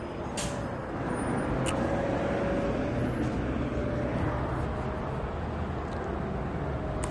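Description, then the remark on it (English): An Omnitrans city bus, number 1327 on Route 61 going eastbound, idles at a bus stop at 11 a.m. with a steady low engine rumble, surrounded by continuous road traffic noise and occasional brief hisses, like air brakes releasing. “It is currently that's uh, 11 a.m. as Omnitrans is present at bus stop number.”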